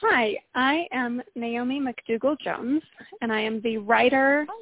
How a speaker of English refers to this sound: And the audio quality is a little wonky, but it was most certainly over the phone.